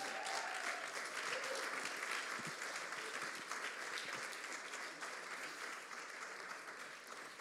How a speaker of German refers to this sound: Okay, er braucht einen Applaus, er traut sich noch nicht so richtig.